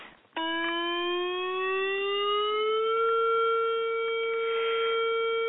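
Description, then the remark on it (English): Loud outdoor warning sirens at the San Onofre nuclear power plant in Orange County, California, set off by a non-radioactive ammonia leak, kick in abruptly and hold a sustained, harmonic wail, pitch slowly rising then leveling off. No one speaks. “That is the sound of the sirens going off at the San Onofre nuclear power plant.”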